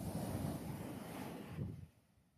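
A steady wash of sea surf and gusting wind rushes loudly against the microphone, then fades abruptly to a quieter hiss near the end.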